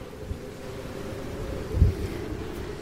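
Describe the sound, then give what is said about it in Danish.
Strong wind buffets the microphone outdoors while someone fishes standing in water up to mid-shin. The wind is so strong the fishing lure won't sink, and there is no sun. A steady low roar with a heavier gust thumping in near the middle; no one speaks. “Det blæser så meget, at blinket ikke vil komme ned til mig.”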